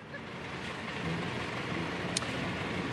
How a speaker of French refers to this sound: vous le voyez derrière moi, regardez ce, camion qui sort, mais on laisse seulement passer quelques camions parce qu'effectivement, le blocage, il a repris euh, ce matin.